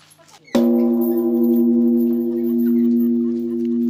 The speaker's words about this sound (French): regarde la cloche là. Tu l'as fait sonner